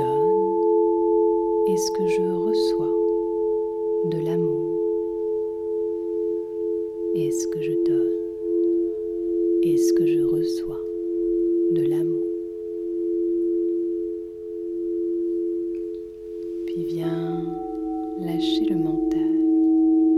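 Crystal singing bowls hum with steady, pure overlapping tones that sustain unbroken for the whole stretch, while a soft voice speaks in brief, quiet phrases over the ringing.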